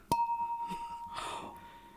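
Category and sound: household object, wine glasses clinking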